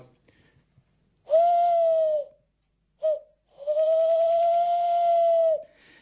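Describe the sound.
A person on a night walk with children imitates an owl with three hoots: a long steady one, a very short one, then another long drawn-out hoot, each clear with harmonic overtones.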